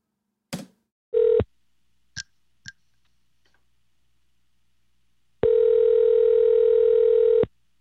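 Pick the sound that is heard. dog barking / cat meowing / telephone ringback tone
telephone ringback tone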